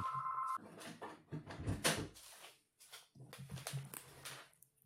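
A telephone rings briefly with a steady electronic tone at the start, then gives way to close-up clattering and rustling handling noises. No one speaks.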